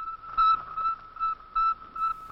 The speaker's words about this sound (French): le matin où le monde apprit que lancé par les Russes au moyen d'une fusée à triple étage, un premier satellite construit de main d'homme avait commencé autour de la Terre sa ronde insolite, emplissant les espaces d'un bip-bip triomphant.